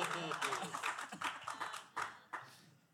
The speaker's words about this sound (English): Yeah, so so those those three people back there that clap, that is the wrong ethical decision to make tonight. Because you're not in Texas.